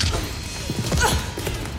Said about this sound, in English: There's also some foley as Sarah scuffles with the hospital staff.